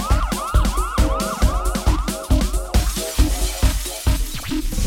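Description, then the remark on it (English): Rapid siren-like wails sweep up and down repeatedly over a pounding four-on-the-floor electronic dance beat, loud and steady throughout, with no voices. “Can you hear the sirens? They're getting closer.”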